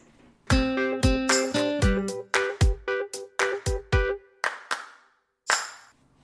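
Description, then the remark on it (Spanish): A doorbell chime, rung for a mail delivery, rings out as a quick run of about a dozen bright, bell-like notes, fairly loud, then a brief pause and one final tone, with no talking. “perdonar, que me ha picado, no sé si habéis escuchado el, el, timbre, eh, correo, correo, pues por pues si hay correo hay que tender el correo.”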